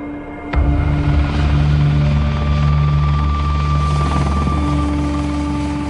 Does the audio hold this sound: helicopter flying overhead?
yes